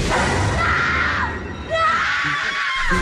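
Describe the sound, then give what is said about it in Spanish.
An eerie, ghostly wailing scream of La Llorona, high-pitched and drawn out, rises and wavers, breaks off briefly, then returns in a second long, quavering cry over a low rumbling backdrop. “El grito de la llorona a través de la mejor.”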